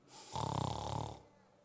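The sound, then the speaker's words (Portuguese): One loud, rasping snore, with a rattling, pulsing texture that lasts about a second and then fades into quiet breath. No speech is heard. “É o ronco da paz.”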